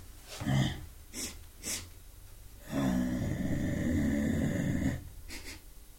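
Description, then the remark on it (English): A performer of the Malawian theatre Nanzikambe, performing the story of the tiger, imitates a mother tiger entering a cave and sniffing: three short, breathy sniffs, then a long, rough, growling exhale with a wheezy rattle, followed by a final faint sniff, fairly loud with no talking. “The mother tiger enters the cave and sniffs the hair of the cave.”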